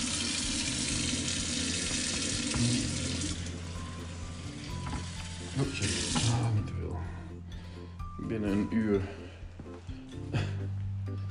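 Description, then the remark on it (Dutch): Cold water runs from a tap with a steady rushing hiss for about six seconds, added to water that was much too warm, then shuts off, leaving kitchen clatter and a voice talking. “Oh, veel te warm. Man. koud water bij.”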